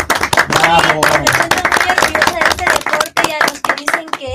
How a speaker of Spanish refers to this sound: Bueno, mañana se festeja el gran día de la lucha libre. Un aplauso. Aquí a todos.